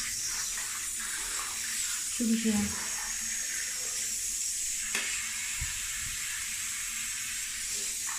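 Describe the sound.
Running water rinses a dog's rear and tail during a bath, a steady, even hiss that flows without pause throughout, while a person speaks briefly over it.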